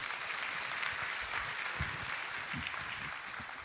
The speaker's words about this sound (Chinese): 哎，给大家掌声鼓励鼓励。